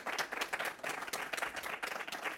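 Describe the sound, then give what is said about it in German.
Steady applause from an audience at a book reading for the author, many hands clapping together in a dense, continuous patter at moderate loudness, with no voices standing out. “und bitte nochmal einen herzlichen Applaus für Susanne Arte”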